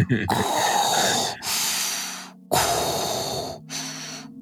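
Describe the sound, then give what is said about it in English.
A voice imitates heavy mechanical respirator breathing close to the microphone: four loud, hissing breaths alternating in and out, each about a second long, with a rasping, filtered tone. “I'll stop breathing weird into the mic now.”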